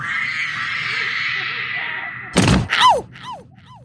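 A steady hiss, then a sudden loud clunk as a trapdoor snaps open, followed by quick descending whistling swoops that grow fainter as someone falls through it.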